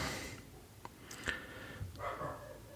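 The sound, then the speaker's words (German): A dog barks faintly in the background, a few short, scattered yaps over a quiet, hissy background with no talking. “Im Hintergrund hörte vielleicht gerade mein Hund ein bisschen bellen.”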